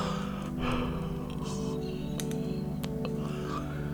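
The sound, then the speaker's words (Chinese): A soft, breathy yawn, the hundredth in a series of one hundred yawns, with drawn-out airy exhales over a steady low hum, a few faint clicks scattered throughout and no talking. “打完了一百个哈欠，我还真的真的快要睡着了呢。”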